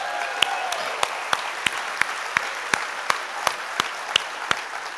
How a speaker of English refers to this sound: a round of applause for our signers.